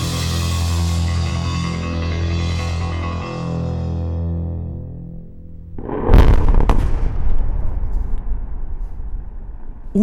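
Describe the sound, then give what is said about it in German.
Sustained tonal music-like notes fade out, then a sudden loud explosion booms at a huge coal mine pit, heard from a few hundred meters above it, followed by several seconds of heavy rumbling and crackling debris. No voices are heard. “steht ein paar hundert Meter oberhalb einer riesigen Kohlegrube, als plötzlich eine Explosion die Stille zerreißt.”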